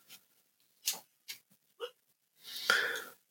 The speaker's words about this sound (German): Oh, mein Hund träumt wieder. Ja, er hat wieder Schluck auf, ne? Das, das klingt ja wie Schluck auf. er bellt im Traum.